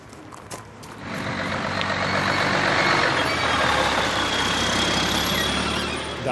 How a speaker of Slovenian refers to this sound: Ja, greva kar na gradbišče preveriti, kako je s hrupom.